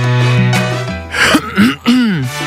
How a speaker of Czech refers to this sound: Jakmile v našem okolí někdo zasmrká nebo zakašle, tak se všichni jako podívají a zbystří. Všimáte si toho? že když jste v tramvaji, jenom si odkašlete.